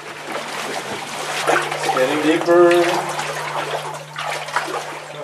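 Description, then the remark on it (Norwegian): Water sloshes and splashes continuously in a flooded catacomb passage over a low steady hum, with a brief voice-like tone rising out of the wash midway through. “Visse strekk er fylt helt opp med vann.”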